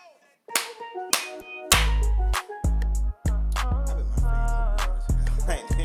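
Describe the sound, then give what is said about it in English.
Sharp clap hits land at irregular beat positions over a thick, booming bass line and layered melodic tones, loud and punchy, with no voices. “I think I got the clap right too.”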